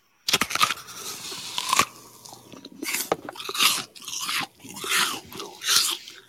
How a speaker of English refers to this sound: I think you are chewing something. yes. Chewing yeah. Chewing an apple. Yes, that is it.